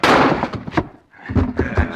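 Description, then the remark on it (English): A heavy door slams open with a loud bang, its broad crash rumbling on for a moment before a brief lull and a second burst of clattering impact. “Open the door or we'll break it down.”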